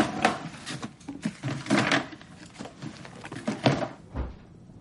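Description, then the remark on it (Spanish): Someone at a kitchen table puts all the things taken out earlier back into a box: a busy run of irregular knocks, taps and wooden clunks, with soft shuffling between them and no talking. “De vuelta en la cocina, se dirige hacia la mesa y vuelve a colocar todas las cosas que había sacado en la caja.”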